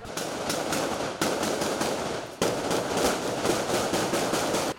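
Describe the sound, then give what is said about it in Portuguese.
Rapid, dense bursts of gunfire crackle almost continuously for several seconds, loud and harsh, with brief breaks between volleys and no voices: an exchange of fire between police and a criminal at a surrounded house in Nova Iguaçu, Baixada Fluminense, Rio de Janeiro, Brazil. “Na troca de tiros, o alvo da polícia foi atingido e morreu antes de chegar ao hospital.”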